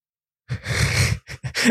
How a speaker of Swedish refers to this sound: Dina hundar snarkar de behöver komma ut och brottas lite.